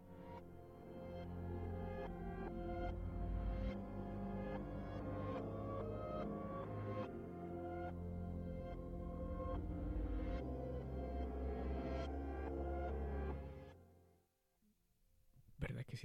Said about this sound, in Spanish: Pero quiero que estén en un lugar solos. Cierren sus ojos, pónganse audífonos, maricas. Y escuchen esta canción por unos cuantos segundos.